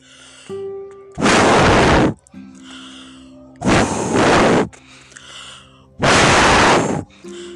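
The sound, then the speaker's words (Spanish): A voice imitates a wolf huffing and puffing: three loud, breathy gusts, each about a second long, separated by brief quiet pauses. “Y el lobo sopló muy fuerte”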